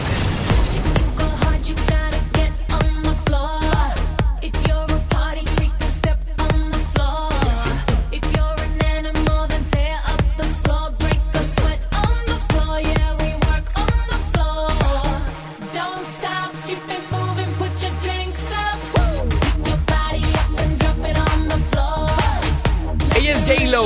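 An upbeat pop dance track plays loudly on the radio station FM Globo 88.1, with a thumping beat, heavy bass and bright layered synths, briefly dropping out midway to a sliding bass sweep before the full groove returns.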